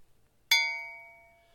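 small bell ding

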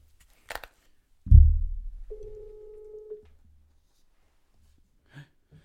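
telephone ringback tone

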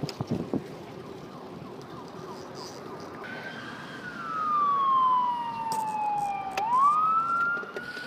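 ambulance siren passing

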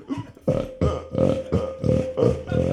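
burp

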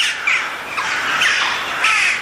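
jackdaw calling

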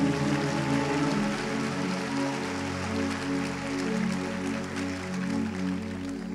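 audience applauding

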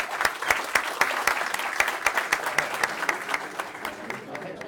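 audience applause

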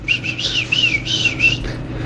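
small birds chirping

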